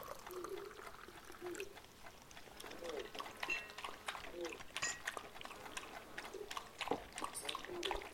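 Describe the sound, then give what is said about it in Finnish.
Coffee trickles and splashes steadily into a cup, a soft continuous pour, with faint murmuring voices in the background. “Unohdin kaataa sinulle kahvi.”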